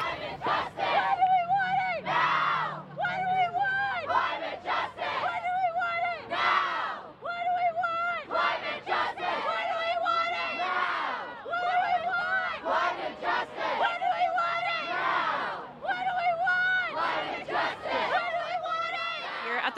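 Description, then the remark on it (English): A large crowd shouts rhythmic chants at a climate strike protest, loud repeated bursts of many voices in a steady cadence, with brief pauses between phrases, continuing throughout. “We're now going to hear some audio and interviews from our reporters on site at last week's climate strike.”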